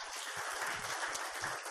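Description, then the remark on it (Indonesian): A church audience applauding a husband and wife together, a dense, steady wash of many hands clapping at an even loudness throughout, with no voices standing out above it. “Beri tepuk tangan buat mereka.”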